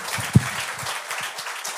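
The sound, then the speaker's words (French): Applause from a small group: a steady wash of many overlapping claps, moderately loud, with one sharper clap standing out early on. No voices. “Mais pour vrai, 70 jours, il, a l'air vraiment bien, il faut l'applaudir pour ça, pour vrai, c'est un bel effort.”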